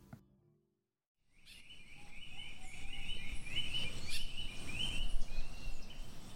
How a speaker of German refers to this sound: So hört es sich an im tropischen Regenwald in Costa Rica. Über 900 Vogelarten zwitschern dort um die Wette. Das sind dreimal mehr Arten, als bei uns in Deutschland rumflattern.